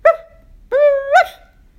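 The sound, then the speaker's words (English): A dog tangled in leaves and vines deep in the woods gives two clear barks: a short sharp yelp, then after a pause a longer, drawn-out bark that rises at the end, with quiet in between and no talking. “She started to bark, but no one answered.”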